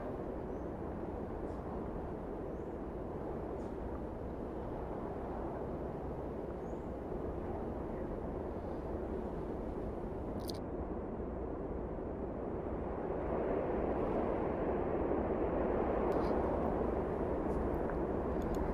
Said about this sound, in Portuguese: Escute o barulho do vento. Escute o vento se aproximando de você.